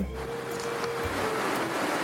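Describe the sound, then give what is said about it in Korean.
Waves wash up onto a sandy beach in a steady rushing roar of surf that stays loud and even for the whole moment, with no voices. “아유 신발 젖을, 젖을 뻔했잖아 아유 파도야 왜 그러니 깜짝 놀랐잖아”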